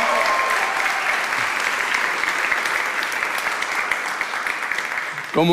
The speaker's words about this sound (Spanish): ¿Qué tal si ahora que terminó la canción celebramos porque comenzamos en el 2021 con nuestros servicios en Mar Azul? Date un fuerte aplauso ahí mismo.